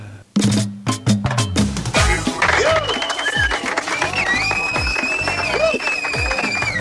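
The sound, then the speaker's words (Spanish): Loud, sustained applause from a crowd at the end of a verbena night dance, dense clapping mixed with cheers and shrill whistles rising and falling above it, continuing steadily for several seconds after a brief quiet start. “Gracias por esos aplausos, amigos y amigas.”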